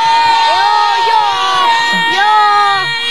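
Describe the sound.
A group of children shout loudly together in a voice vote, answering whether they are having fun, their high voices overlapping in a sustained, excited chorus that fills about three seconds.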